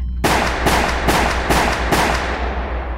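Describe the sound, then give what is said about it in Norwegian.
Five loud gunshots crack in quick, slightly uneven succession, each sharp blast ringing out with a reverberant tail that fades away after the last shot; a man on a street fires at a police officer. “Plutselig hadde mannen snudd på hælen sett rett på Tippit og løftet en arm. Så lød fem høye smell.”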